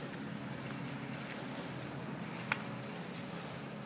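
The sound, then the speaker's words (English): A steady, low engine rumble drones on without a break, like a car idling, with one brief sharp click partway through and no one talking. “Sounds like somebody's idling their car or something.”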